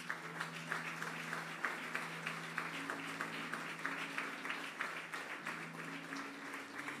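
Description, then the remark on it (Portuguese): An audience applauds steadily for several seconds, a dense, sustained patter of many hands clapping, with a low held musical tone humming underneath throughout. “Dá uma salva de palmas para Jesus.”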